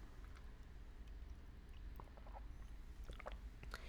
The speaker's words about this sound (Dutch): Even een slokje water en dan gaan we.